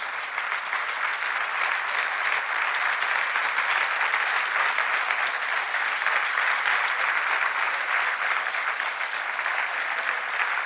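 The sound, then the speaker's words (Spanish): Steady, dense applause from a large audience for the volunteers of Radio María on its 20th anniversary, many hands clapping continuously at an even loudness for about ten seconds, with no voices standing out. “Un gran aplauso para todos los voluntarios que hacéis y habéis hecho posible que Radio María haya cumplido 20 años.”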